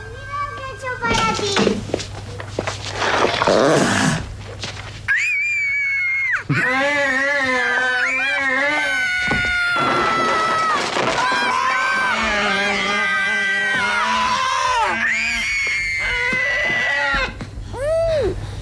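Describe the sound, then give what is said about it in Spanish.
A young girl lets out loud, piercing screams in long, wavering high-pitched wails, sustained for several seconds, following a brief burst of noisy commotion; the famous scream scene with Drew Barrymore from a Steven Spielberg film, in the film's dubbed version. “la, traducción al, doblaje de la película, pero fue un grito muy, un grito muy recordado en el cine.”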